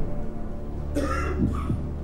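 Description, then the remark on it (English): Two short, rough coughs in quick succession, the first longer and harsher, against a low steady background hum. “I mean, obviously, we could never have predicted uh, when we began making this show that uh, coughing would become such a uh, an anxiety-inducing uh, theme.”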